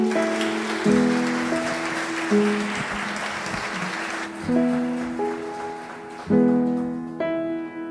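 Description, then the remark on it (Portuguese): An audience applauds the Lord steadily for several seconds, a dense wash of clapping that thins out midway while sustained keyboard chords swell and change underneath. “Mais uma vez, aplauda o Senhor.”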